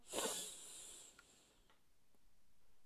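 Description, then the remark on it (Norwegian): A single deep breath drawn in through the nose at the start of a breathing exercise to clear the mind of thoughts before sleep, an airy, hissing rush right at the start that fades over about a second into near silence. “Og det gjør vi med å puste godt inn med nesa,”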